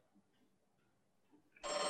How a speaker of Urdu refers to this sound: ٹیلی phone کی گھنٹی بجنا شروع ہوئی میرے آوارہ خیالات کا سلسلہ ٹوٹ گیا بالکنی سے اٹھ کر میں اندر کمرے میں آیا ٹیلی فون زدی بچے کی طرح چلائے جا رہا تھا ٹیلی فون بڑی مفید چیز ہے مگر مجھے اس سے نفرت ہے اس لیے کہ یہ وقت بے وقت بجنے لگتا ہے